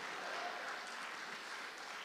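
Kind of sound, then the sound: crowd, audience clapping hands loudly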